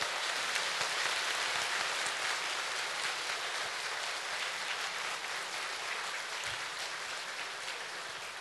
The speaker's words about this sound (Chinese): 让我们再次以热烈的掌声，感恩卢军红台长的慈悲开示。